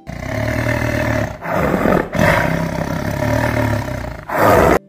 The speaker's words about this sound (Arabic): وعلق الأسد في الشباك زأر الأسد عاليا وحاول الهروب لكنهم ربطوا الشباك بقوة اتجه الصيادان إلى القرية لإحضار عربة لنقل الأسد وظل الأسد يزأر عليه